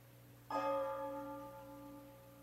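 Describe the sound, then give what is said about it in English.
A clock chimes at 12 o'clock: a single deep chime strikes once, clear, its bright metallic tone ringing out and slowly fading over a low steady hum. No one speaks. “It's 12 o'clock all over again, isn't it”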